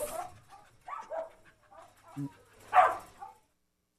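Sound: dog barking and panting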